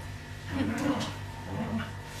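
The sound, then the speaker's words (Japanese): Small dogs growl playfully while enjoying a game, in a couple of rough, rumbling bursts, fairly quiet, with a steady low hum running underneath. “今うなり声だけ聞こえてると思うけど楽しんでます”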